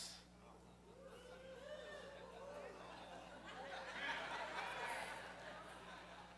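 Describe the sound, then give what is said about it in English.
A crowd murmurs and lets out rising and falling oohs and aahs in nervous anticipation, with scattered chuckles. The voices swell louder toward the middle and end. “I don't know if y'all can hear them at home right now or not, but they're like wooing and oohing and awing and like it's like a nervous anticipation, is what it sounds like to me.”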